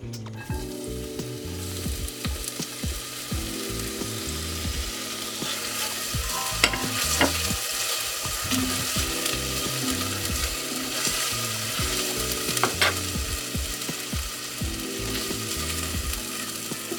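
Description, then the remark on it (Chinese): Minced garlic and ginger sizzle steadily in very hot oil in a pan over medium heat, a continuous crackling hiss, with occasional metallic scrapes and clicks of stirring in the pan. A repeating low tonal pattern runs underneath throughout; no one speaks. “油已经超热了之后呢，我们就把我们的蒜头跟我们的姜碎给放下去”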